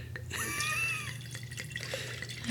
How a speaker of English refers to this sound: We're pouring wine. Click, click, click, click, click.